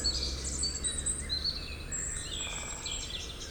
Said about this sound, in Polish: I wychodzi, że to albo dzięciołek, najmniejszy z gatunków mieszkających w Polsce, albo dzięcioł zielony.